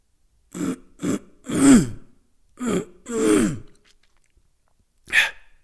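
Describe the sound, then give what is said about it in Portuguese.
A run of rough, raspy throat clearing: short hacks and two longer gravelly rasps in quick succession, then a pause and one brief, sharper huff at the end. No talking. “E hoje tenho um gafanhoto na minha garganta.”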